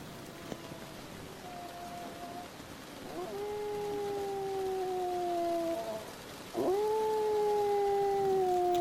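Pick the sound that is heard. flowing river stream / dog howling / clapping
dog howling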